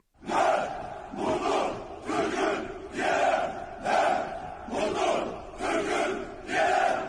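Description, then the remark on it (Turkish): A large group of Turkish commandos chants loudly in unison in the streets of the capital Baku, Azerbaijan, while preparing for a military parade ceremony, shouting in a steady rhythm of about seven strong bursts, each swelling and fading with short gaps between them. “Kahraman Türk komandoları tören için hazırlık yaparken başkent Bakü sokakları onların sesleriyle inledi.”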